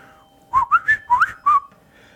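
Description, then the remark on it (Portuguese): A person whistles a quick series of five clear, sliding notes, imitating an eerie whistle heard in the middle of the night, with no talking and a quiet background. “Tipo, eu vou fazer um assovio aqui, ó.”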